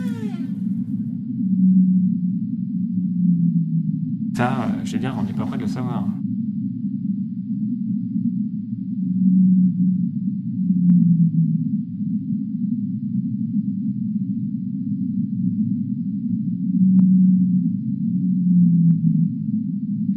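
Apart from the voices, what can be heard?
whale vocalizations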